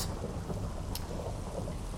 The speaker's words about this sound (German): Der Blitz ist eingeschlagen und der Creeper wurde zum geladenen Creeper. Vielleicht kennt ihr den, vielleicht auch nicht. Das ist eine besondere Form, die nur entstehen kann, wenn, wenn ein Blitz den Creeper trifft.